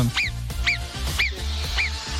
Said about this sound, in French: Avant cela aujourd'hui, lorsque vous entendez le sifflement de nos petites marmottes,